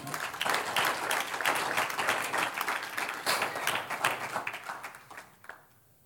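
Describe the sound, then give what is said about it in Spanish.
An audience applauds with dense, steady clapping that holds loud for about five seconds, then thins out and fades as the last few claps trail off. “Un aplauso al que vive.”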